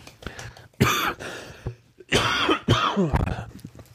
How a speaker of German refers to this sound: Entschuldigung. Ich glaube, der Husten kommt von der Kälte vom Laufen.